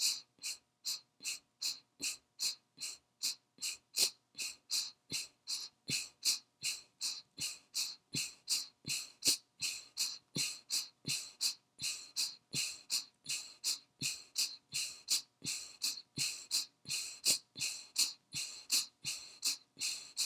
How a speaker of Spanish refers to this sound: Recuerda que vamos a hacer tres ciclos de respiración de fuego. Comenzamos. Ahora pasas a 45 segundos de respiraciones muy cortas.